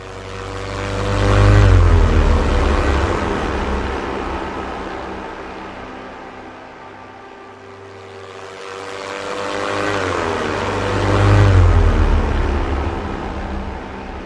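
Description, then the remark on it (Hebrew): Droning propeller engines of World War I German Gotha warplanes swell in and fade away twice, a low throbbing hum with steady harmonic whine passing overhead, loud at the peaks, with no voices. “במרץ 1917 קיבל לידיו חיל האוויר הגרמני את הדגם הראשון של מטוס הקרב גוטה גיפיר.”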